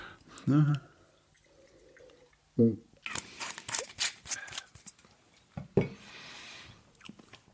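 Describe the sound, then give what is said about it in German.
Drinking water splashes and gurgles into a glass for a couple of seconds between wines at a wine tasting, fairly clear, with short bursts of a voice before and after the pour. “Schluck Wasser. Immer schön Wasser trinken, sonst geht's einem nicht gut hinterher.”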